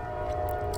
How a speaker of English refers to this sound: sorry about the train. We have a train that's like right outside our house.